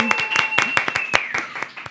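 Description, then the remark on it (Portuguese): A short burst of audience applause: sharp, irregular claps from a small group, fairly loud, with a steady high whistle-like tone that slides downward partway through. “Uma salva de palmas, minha gente!”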